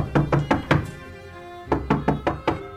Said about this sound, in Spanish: Acababa de cerrar los ojos cuando alguien llamó a la puerta.